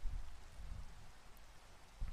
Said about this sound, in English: The rain fell like a veil, cloaking the figures on the street from my view, making it even more difficult to find my friend. The storm was overpowering me now. A screaming gale nearly forced me off my feet.